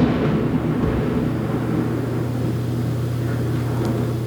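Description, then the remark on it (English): A loud, deep rumble of thunder rolls continuously for several seconds during a thunderstorm on the East Coast, holding a steady low roar with no voices over it. “Wow we got a Was that- thunderstorm here.”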